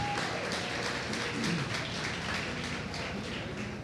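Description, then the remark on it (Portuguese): A church audience applauds for Jesus for the lives of church members, dense overlapping claps forming a continuous crackling wash at moderate loudness, with faint murmuring voices beneath. “Salva de palmas para Jesus pela vida deles.”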